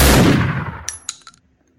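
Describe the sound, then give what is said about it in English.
A gunshot sound effect, played by mistake instead of an applause effect: a loud blast erupts and rumbles away over about a second, followed by three quick, bright metallic clinks that ring briefly before fading to silence. No one speaks. “Oh, not that one. That's just a gun.”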